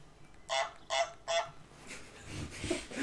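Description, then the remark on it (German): A goose in a video game honks three times in quick, evenly spaced, loud bursts, followed by fainter, muddier sounds in the background. “Das ist eine Gans!”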